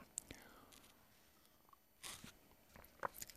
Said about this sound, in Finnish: Pikkasen pakko hörpätä tämmöisen viisastelijan diiseliä eli kahvia.